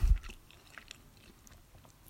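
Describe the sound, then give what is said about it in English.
Chewing with soft, wet mouth clicks and light crunches at an irregular pace, fairly quiet. No one speaks. “I don't want to chew on the mic though, because these mics are too hot.”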